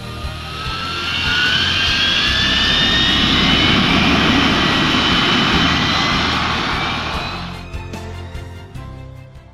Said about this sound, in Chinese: 民航客机的最高时速约一千公里，但由于缺乏参照物，平常乘坐飞机我们体会不到它的快。但是，如果我们让飞机保持现在的速度，让它贴着地面飞行，我们就能感受到它的风驰电掣。